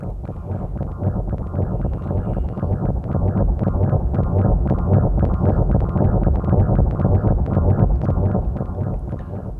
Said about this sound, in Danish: Men lige nu vil jeg spille noget, jeg har arbejdet på, som af noget drone ambient lagtigt måske, som er to loops, jeg har liggende på min DJ-mixer, øh, som jeg lige skruer op på her, så I kan høre, hvordan det lyder.